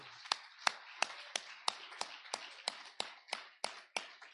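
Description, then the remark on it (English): A church audience claps in unison in praise of God to a steady, brisk beat, about a dozen sharp, crisp claps with a soft wash of scattered clapping between them, and no talking. “And all the time, give him one more hand clap.”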